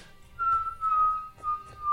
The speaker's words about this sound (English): like something hurtling through air, which you would have heard from cannon fire